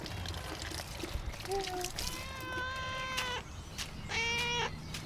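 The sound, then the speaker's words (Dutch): A cat meows three times: a short chirp, then a long drawn-out meow, then a briefer one, all over a steady hissing background noise. “Hé, poes.”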